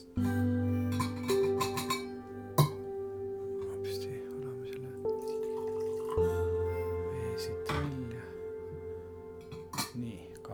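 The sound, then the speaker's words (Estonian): Hot water is poured into a coffee pot to warm the pot, with a steady filling sound whose pitch shifts as the vessel fills. Occasional light clinks of glass or ceramic punctuate it. “teeme kannu soojaks.”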